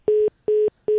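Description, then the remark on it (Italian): A dropped-call phone tone after a caller's line drops during a phone-in: three short, identical steady beeps at a single mid-low pitch, evenly spaced with brief silences between them, fairly loud with no voices. “Nessuno, perché la linea è caduta,”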